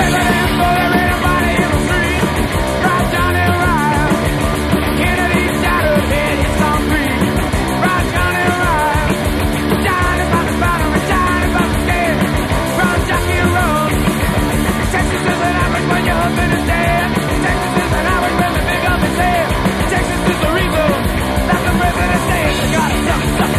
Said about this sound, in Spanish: Eh, pues venga, que suene esta, esta bala de canción.